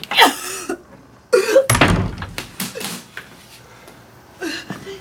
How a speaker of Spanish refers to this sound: Denver sale del aseo y cierra la puerta.